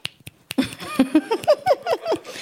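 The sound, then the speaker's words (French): Audience members applaud by snapping their fingers, a few scattered sharp clicks at an irregular pace, soon overlapped by murmuring and light giggling voices that carry on while the snapping continues faintly. “Quand vous voulez applaudir, vous pouvez applaudir comme ça.”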